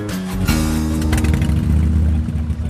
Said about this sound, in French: Ah, ça, c'est un bruit. Un son comme celui-ci est reconnaissable entre mille. Le bruit d'une célèbre marque de moto qui fête son 120e anniversaire cette année.